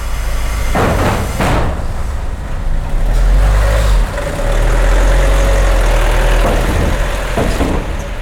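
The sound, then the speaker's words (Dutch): A ferry engine drones steadily with a loud, low rumble throughout, while a few sharp metallic thuds and clanks break in near the start and again toward the end. The ferry is making the two-hour crossing to Suroi, the southernmost of the Faroe Islands. “Je vaart er met een ferry in twee uur naartoe.”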